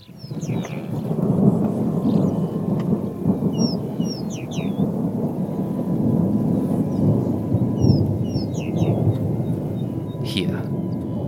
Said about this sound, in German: Dazu der Geruch des Grases und des Regens, der bereits in der Luft liegt und den der Donner noch immer gelegentlich ankündigt.